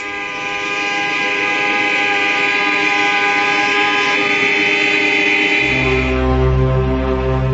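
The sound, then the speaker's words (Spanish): A loud, continuous chorus of car horns blaring together without pause as West Berliners protest on the anniversary of the Berlin Wall's construction, many overlapping tones held steadily, with deeper horn tones joining in toward the end. “Después protestan a bocinazos.”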